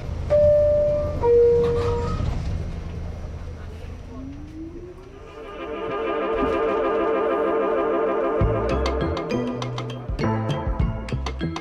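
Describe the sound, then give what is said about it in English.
A subway train pulls away toward Lorimer Street: a couple of chime tones, then an electric motor whine that climbs steadily in pitch into a sustained hum, followed by rhythmic wheel clatter. “The next stop is Lorimer Street. Transfer here for the City Reliquary Museum. Stand clear of the closing doors.”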